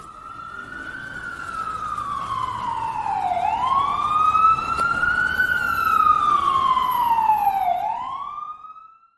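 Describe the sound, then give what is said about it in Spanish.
An ambulance siren wails loudly and steadily, its pitch sliding slowly down, then up and down again in long sweeps before cutting off. No voices, just the siren over faint road noise. “estoy escuchando una sirena de fantasy por ahí, como una pequeña ambulancia”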